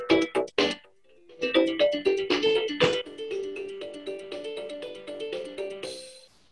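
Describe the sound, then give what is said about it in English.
A tinny electronic toy plays a short, bright guitar-style melody, opening with a few sharp strummed chords before running into a quick sequence of clear synthesized notes, fairly loud. “We we could be playing you know Top Gear or Horizon Chase Turbo music, but I think we're just going to fill it all with the sounds of the toys.”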